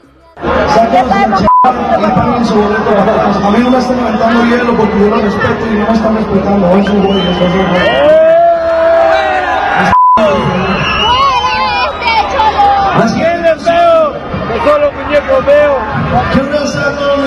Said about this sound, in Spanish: No, no lo recibió muy bien la gente, le llovieron gritos, abucheos y hasta hielo le aventaron. Escuchemos un poco de lo que pasó.